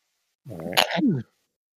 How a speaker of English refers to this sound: Bless you, I think.